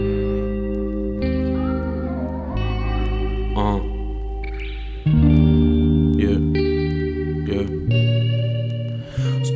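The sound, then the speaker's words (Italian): A relaxing song with important lyrics begins with sustained, reverb-soaked chords that shift every second or two, with a singing voice drifting in over the steady, unhurried accompaniment. “Sì, perché poi vedrete, è molto canzone molto rilassante come, come ritmica, però il testo è un testo importante, quindi Allora sentiamolo adesso.”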